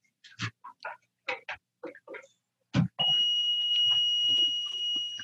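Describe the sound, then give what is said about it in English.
A few short bursts of speech, then an oxygen concentrator's alarm, set off by unplugging it without turning it off, cuts in with a loud, piercing electronic tone that holds steady until the end. “It's not working and it keeps making this beeping noise.”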